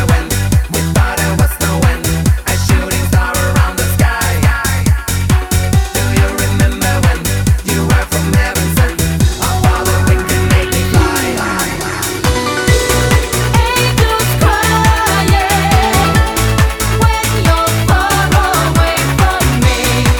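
A Swedish-produced Eurodance classic plays loudly, a pounding steady four-on-the-floor beat under bright, layered synths, with a short breakdown and rising sweep midway before the beat returns. No one talks over it.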